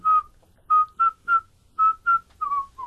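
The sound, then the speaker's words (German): Someone whistles a short melody, about eight clear notes in an uneven rhythm, the last ones gliding slightly downward, with no talking over it. “Und da kommt dann dieser Pfeifenfight. Er macht dann hier”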